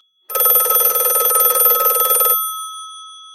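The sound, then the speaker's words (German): A shrill, rapidly trilling bell of an old telephone rings loudly and continuously for about two seconds, then cuts off, leaving a brief metallic ring-out fading into silence. “Das schrille Klingeln eines Telefons unterbricht mich.”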